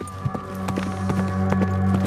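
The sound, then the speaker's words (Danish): Horses carrying fleeing riders gallop off out of a town, their hoofbeats a quick, steady run of thudding beats over a sustained low droning tone, with no voices. “Med pistolerne rettet mod den forskrækkede bankassistent, bakker de langsomt ud af banken igen, og i en glidende bevægelse hopper de op på ryggen af de parkerede heste og drøner ud af byen.”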